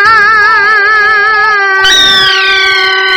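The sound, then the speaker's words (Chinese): A suona horn blares loudly and continuously, its bright, reedy tone wavering with vibrato before sliding into a new, shifting phrase partway through, with no voices. “哎，这喇叭吹的挺有劲的”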